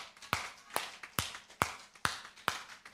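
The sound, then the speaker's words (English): Six sharp hand claps in a steady, even rhythm, each a crisp slap with a short ringing tail, heard alone with no talking. “I'm sorry, but that's a hand clap.”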